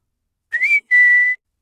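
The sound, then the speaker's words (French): A person whistles once, clear: a quick rising note that breaks briefly, then a steady sustained tone, with silence around it and no talking. “Il se met à siffler une fois.”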